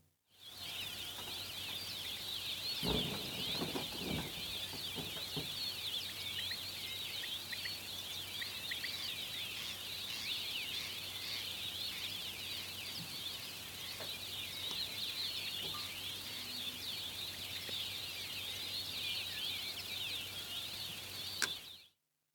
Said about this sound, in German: Wer könnte zum Beispiel diesem Vogelkonzert in der georgischen Morgensonne widerstehen?